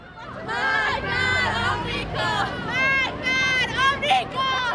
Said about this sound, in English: It happens during the annual demonstration marking the anniversary of the taking of the U.S. Embassy in Iran. The demonstrators are shouting, Marg Bar America, death to America.